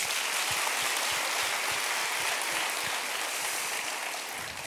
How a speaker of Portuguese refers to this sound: Se você crê, aplaude ao Senhor nessa noite.